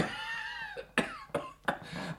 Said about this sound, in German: Zuweilen nur fällt's mir auf die Brust. Ach, das macht nichts. Sie husten mit Scham.